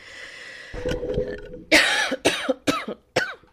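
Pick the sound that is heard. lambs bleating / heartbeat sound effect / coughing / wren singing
coughing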